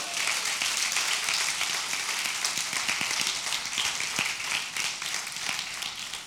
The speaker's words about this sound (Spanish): ¿Qué tal si un fuerte aplauso al Señor?